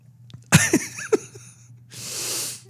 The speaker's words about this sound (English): I think you sneezed last show too. I might have. That's what happens when you bang your wrist on the table. Somehow it just elicits a sneeze.